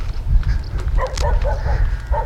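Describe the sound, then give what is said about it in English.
A string of short, sharp barks from dogs out walking with a person in a red jacket, one fluffy and one resembling a pit bull, comes in quick succession over a steady low rumble of wind and outdoor noise. “some dogs walking about up here with somebody in a red jacket”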